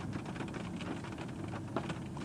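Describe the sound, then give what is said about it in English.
Steady rain, just starting, patters on a mobile studio, a dense continuous hiss with scattered droplet taps, with no voices and no pauses. “You know, it is starting to rain.”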